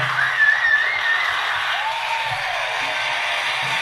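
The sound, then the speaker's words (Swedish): A canned burst of applause and cheering from a sound-effect app, a dense steady wash of clapping with a few faint whistles, lasting a few seconds with no talking over it. “Det är ju helt fantastiskt och jag tycker ju lite grann att det är värt eh, en applåd, eller vad, vad säger ni?”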